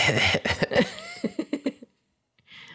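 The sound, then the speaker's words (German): A fairly loud coughing fit: a couple of harsh bursts followed by a quick series of shorter, rhythmic coughs, then silence and faint breathy noise. “Verzeihung, ich versuche nicht mehr so viel zu husten.”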